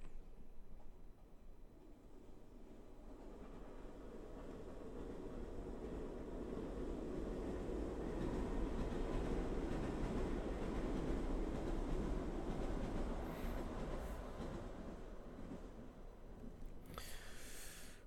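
A train rumbles past, a low roar swelling from a distance to a loud peak midway and then fading as it moves off, with a brief high metallic hiss near the end. No one speaks.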